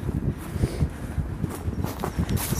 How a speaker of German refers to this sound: schönes Rascheln.